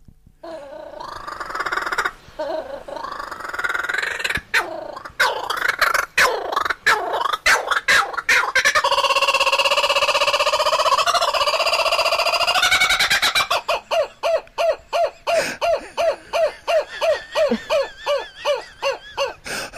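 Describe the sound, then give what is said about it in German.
A laughing kookaburra's raucous call builds from chuckling staccato notes into a loud, sustained cackling chorus, then breaks into rapid rhythmic hoots, unaccompanied by speech. “So ist es auch beim lachenden Hans. Magst du ihn mal hören?”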